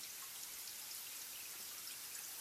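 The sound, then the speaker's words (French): Steady, soft rainfall outside on a rainy day during lockdown on 29 April 2020, a continuous hiss of drops with no voices and no breaks, fairly faint and evenly spread throughout. “Cet épisode a été enregistré le 29 avril 2020, en confinement, un jour de pluie.”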